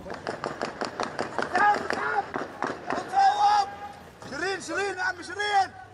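A rapid string of sharp gunshots cracks out over the first couple of seconds as a group of journalists in bulletproof vests and helmets walks along a quiet street in Jenin, then several people shout and cry out in alarm, calling for an ambulance.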